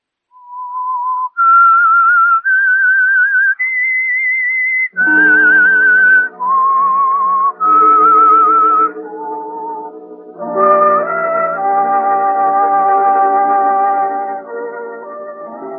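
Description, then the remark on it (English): A person whistles a clear melody that climbs in steps, first alone, then over a full instrumental accompaniment that swells beneath the tune for the rest of the passage. “And now, back to the whistling.”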